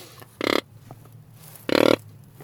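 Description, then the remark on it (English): A reed hunting call, with the reed inside, blown twice like a flute, each a short, loud, raspy grunt about a quarter second long, separated by a pause, mimicking a rutting animal's call, with no talking. “So this uh, works uh, kind of like a flute, this uh, tool yeah, that you're showing to me, right?”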